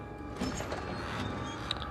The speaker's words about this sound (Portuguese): A porta se abre.